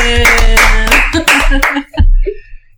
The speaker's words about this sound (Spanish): Y tenemos un nuevo invitado. Vamos a darle un fuerte aplauso al aire acondicionado. ¡Bien!